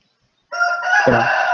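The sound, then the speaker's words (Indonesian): A rooster crows loudly, one strained, harmonic call that begins after a brief silence and carries on to the end without trailing off. “Suara ayam nggak ganggu aku.”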